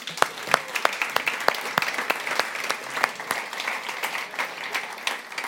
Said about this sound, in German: Warum hat unser Aufbauteam, und hey, lass uns dem Aufbauteam mal einen Applaus geben.